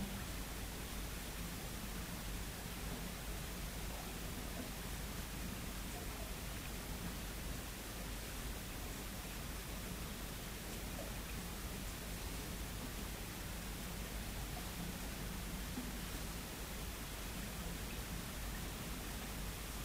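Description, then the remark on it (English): Soft, steady rain hisses continuously throughout, a dense and even wash of sound with no distinct drops standing out, quiet and without any voices. “find our attention drawn to an aspect of what's present, either the sensation of the body, the breath, the sound of the rain.”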